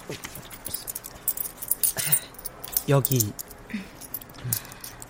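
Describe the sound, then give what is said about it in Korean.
Small metallic jingling and clinking of Korean won coins rustled around as someone rummages for them after being asked for coins, in brief irregular bursts, with a short spoken word in the middle. The coins are for buying coffee from a nearby vending machine. “동전 가진 거 있어?”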